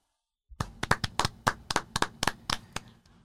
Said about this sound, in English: we have to give some claps.